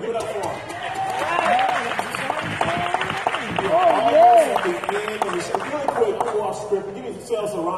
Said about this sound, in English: applause, man, for sticking in there. Woo! Thank you.